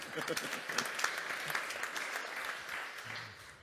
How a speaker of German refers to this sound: Wir kennen uns 40 Jahre wir sind quasi frisch vermählt, 29 Jahre. Also auch Applaus.